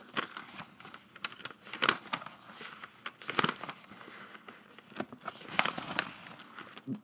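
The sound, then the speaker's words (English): Paper rustles and crinkles as about five sheets are turned one after another, with sharp papery swishes at irregular intervals, fairly quiet, no voices. “And what you just heard was probably five sheets of paper I just turned, but think about 20 or 30 people in the classroom doing that all simultaneously while you're talking.”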